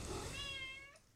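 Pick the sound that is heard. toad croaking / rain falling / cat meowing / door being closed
cat meowing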